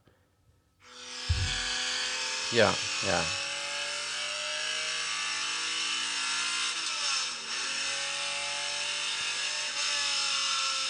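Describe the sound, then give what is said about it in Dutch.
A high-pitched, raspy Ferrari 250 GTO racing car engine starts up and roars steadily, with two sharp revs blipping up early on, loud; a voice briefly speaks underneath. “Ja, voor mij is dit een GTO. Het is echt schel ook, hè?”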